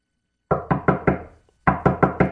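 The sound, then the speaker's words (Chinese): Excited knocking on the narrow gate, a door beneath a stone inscribed with the words of knocking and it being opened: two bursts of four firm, evenly spaced knocks separated by a short pause. Each knock is loud and woody with a quick decay, and there is no talking. “于是蒙恩兴奋地敲了敲门，”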